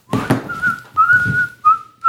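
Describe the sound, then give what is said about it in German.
A person whistles a short, wavering tune, the clear tone sliding and holding for about two seconds with a brief break near the end. “Ich kenne viele Leute, die Pfeifen auf die Palme bringt.”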